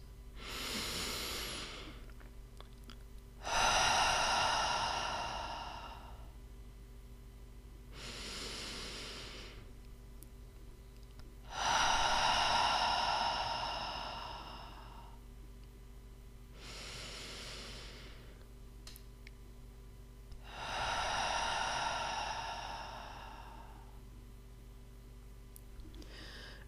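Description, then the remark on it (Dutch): Three slow, deep breaths, each a quieter intake through the nose followed by a longer, louder exhale through the mouth, evenly paced with no talking. “Adem drie keer in jouw tempo in door je neus en uit door je mond.”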